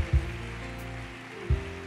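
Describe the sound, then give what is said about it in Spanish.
Steady crowd applause, a dense crackling wash that fills the space, with sustained musical tones underneath and two deep low thumps near the start and end. “Denle un aplauso fuerte a Él.”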